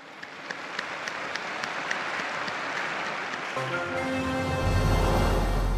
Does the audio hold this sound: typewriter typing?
no